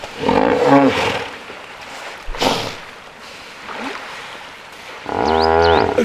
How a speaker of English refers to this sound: So anyway, we find out that hippos talk to each other. Well, duh. I mean, we knew that already. On this show, we played you hippos talking to each other.